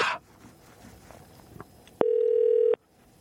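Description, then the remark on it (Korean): A short burst of telephone dialing tones gives way to a steady electronic ring-back tone lasting under a second, clear and fairly loud, with no talking over it, as host Park Myung-soo places a call to a listener. “6066님 전화 걸어보겠습니다.”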